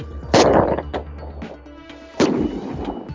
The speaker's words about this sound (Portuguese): Eu nem sei se esse fogo funcionou. Eu tenho um de 12 tiros aqui, ó.